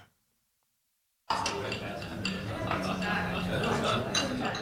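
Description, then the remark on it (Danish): Glasses and cutlery clink repeatedly amid a dense murmur of many voices, a busy formal gala dinner crowd starting abruptly after a moment of silence and continuing at steady loudness. “Det her, det er lyden af et hvilket som helst med gala.”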